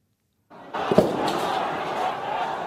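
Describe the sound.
A single sharp bang of tear gas fired by riot police in helmets and gas masks into a crowd of protesters in Hong Kong cracks out over the roar of the crowd, followed by a fainter pop, while many voices keep shouting and murmuring.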